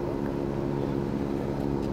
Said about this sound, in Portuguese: É o avião que vai levar a gente até Manicoré. O avião é um bimotor, comporta até 15 passageiros.